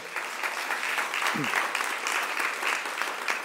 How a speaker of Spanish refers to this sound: Den un fuerte aplauso al Rey.